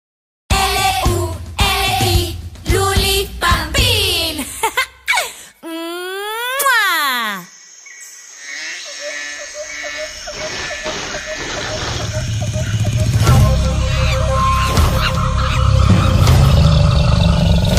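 A children's jungle-themed song opens with wailing, cry-like tones and swooping sliding sounds, then settles into a fuller, steady backing that grows gradually louder toward the end.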